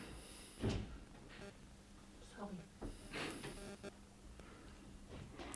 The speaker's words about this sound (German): das ist auch so ein kleiner Klassiker in diesem Podcast, dass irgendwann immer irgendwer reinkommt oder an der Tür äh, klopft. Ist das so ein, so ein äh, Running Gag? Das haben wir schon so, wirklich oft gehabt.